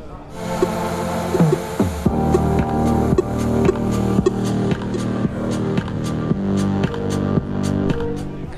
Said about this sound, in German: Was ihr hier hört, ist ein zweimal 1,50 Meter großes Pong-Spiel äh, auf einem ziemlich coolen LED-Screen.